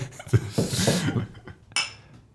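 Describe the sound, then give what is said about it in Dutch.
Glasses clink together in a toast over a mixing console: a short, bright chime rings out near the end, after a few seconds of soft rustling and liquid-like hiss. “Schenk hem in, laten we proosten boven het mengpaneel.”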